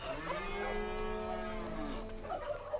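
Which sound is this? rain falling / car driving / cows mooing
cows mooing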